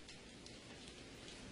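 nature, rain falling

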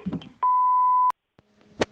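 signal or alarm, telephone tones

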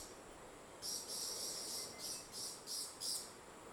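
bird, many birds calling

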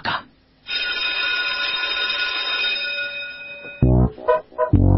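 signal or alarm, school bell ringing

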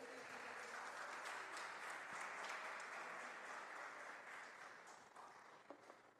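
crowd, audience applauding

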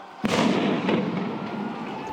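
sound effect, fireworks exploding

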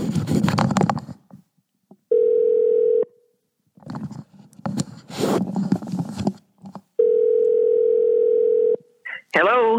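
signal or alarm, telephone dial tone

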